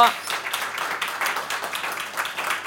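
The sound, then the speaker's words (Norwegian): An audience gives a big round of applause to a panel after a discussion, with steady, dense clapping that holds at an even, moderate level for a few seconds, with no voices coming through. “du, jeg syns vi skal gi en stor applaus til panelet her.”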